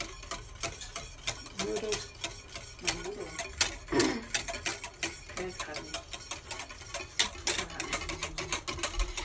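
Milk, nearly boiling, being stirred in a pot while making caramel sauce: a fast, irregular run of scraping clicks and taps from a utensil against the metal, continuing steadily throughout, with a faint voice briefly audible underneath.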